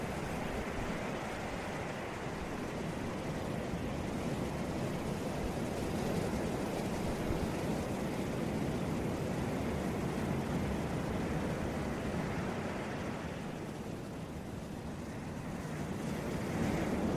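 ocean waves

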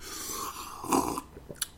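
sipping coffee

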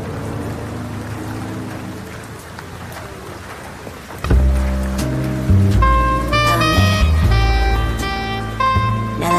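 rain falling

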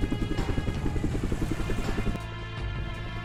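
helicopter flying

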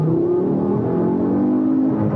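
car accelerating

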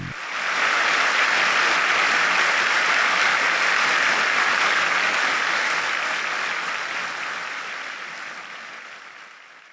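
standing ovation applause

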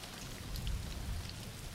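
background rain

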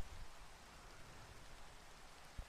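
rain falling

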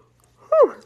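yawn

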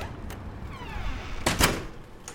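door being closed

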